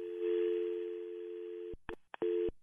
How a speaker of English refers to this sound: I just put your call on hold, and you probably can hear that. So you should be quiet.